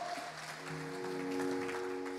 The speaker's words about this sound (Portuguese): Vamos colocar de pé, apaga as luzes, vamos adorar o Senhor. Pode aplaudir o Senhor, que Ele é merecedor.